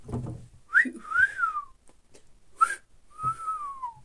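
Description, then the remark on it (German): A person whistles a few short, sliding notes with the mouth, rising and falling in pitch, with brief pauses between phrases, fairly clear. “Wer kann auch pfeifen, Digga?”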